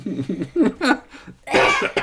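A cluster of coughs: several short, rough bursts at first, then a louder, harsher hacking cough with a breathy rasp near the end.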